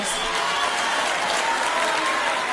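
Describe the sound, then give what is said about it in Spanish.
A large audience at a university graduation ceremony claps steadily when Madrid regional president Ayuso is mentioned, a dense, sustained wash of applause that holds at an even, fairly loud level throughout, with no voices standing out above it. “Es un día muy triste porque cuando digo Ayuso, oigo aplausos.”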